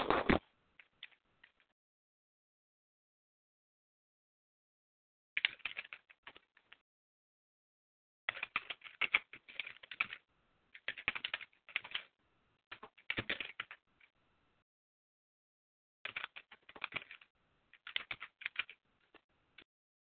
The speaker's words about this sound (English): while I'm typing and while I'm waiting for this to put up